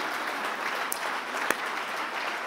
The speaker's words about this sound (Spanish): Si alguien lo cree aquí, que le dé un aplauso fuerte al Señor.